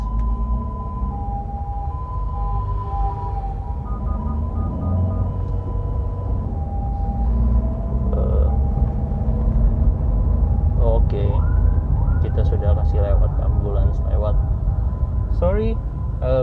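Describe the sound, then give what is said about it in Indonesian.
An ambulance siren sounds over a steady low traffic rumble, starting as a held wail and then breaking into rapid rising-and-falling yelps as it grows louder. “sorry bentar ya ini ada ambulans”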